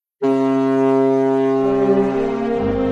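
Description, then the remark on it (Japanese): A single deep, sustained blast from a large cargo ship's horn, loud and steady with a rich low tone, holding for nearly three seconds before shifting slightly lower at the end. No one speaks. “あそこに見える、ほら、あんな大きな船に乗って世界一周してみたいな。”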